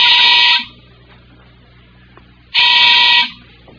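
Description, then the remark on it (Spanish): A street doorbell rings twice with a loud, harsh electric buzz, each burst lasting under a second, separated by a quiet pause of about two seconds. “Es el timbre de la calle.”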